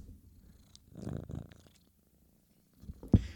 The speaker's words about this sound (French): Ok, mais reste confortable ici là parce que. Ok, mais ronronne pas trop fort non plus là.